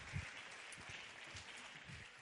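A crowd applauds steadily, a dense wash of many hands clapping at once that holds at an even, fairly loud level for a couple of seconds without pause.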